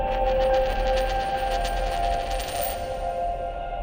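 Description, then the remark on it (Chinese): Ambient soundtrack music from the short film 'Color Is a Poem' (颜色是一首诗), made by Mini with Dolby Laboratories: sustained mid-range tones over a low drone, with shimmering, bell-like high notes that pulse and then drop away before the end. No voices. “各位现在听到环绕你耳边的就是《颜色是一首诗》这支短片中的音乐，这是 Mini 与杜比实验室联合制作的短片。”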